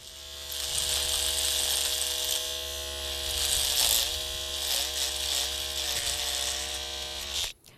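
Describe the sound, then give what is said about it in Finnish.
An electric hair clipper buzzes steadily for several seconds, its motor pitch wavering slightly as it works, then it cuts off abruptly at the end. “siinä karvan aju kone, kone surisi.”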